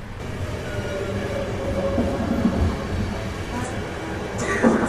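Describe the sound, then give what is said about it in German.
A train rolls into Zürich station on platform 8, about an hour late, with a steady low rumble and faint metallic hums. Muffled voices murmur in the background, and a brief brighter screech rises near the end. “Ankunft in Zürich auf Gleis 8. Es ist kurz nach 10. Der Zug hat ungefähr eine Stunde Verspätung.”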